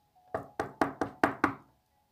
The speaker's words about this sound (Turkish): Hemen kapısını çalmış.